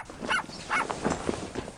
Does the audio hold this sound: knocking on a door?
no